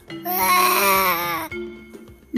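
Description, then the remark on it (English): A young voice imitates a lion's roar with one loud, strained, sustained cry lasting over a second, then breaks off into a few faint, short vocal sounds. “How does the lion roar?”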